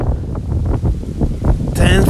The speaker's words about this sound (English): it's pretty windy and i think this recording is gonna be a lot of noise a lot of winding